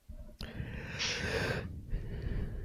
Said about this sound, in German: Der … hat gegähnt.